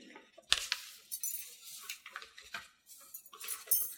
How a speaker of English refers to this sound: There goes another car smashed up. Six cars smashed up on the freeway to Galveston.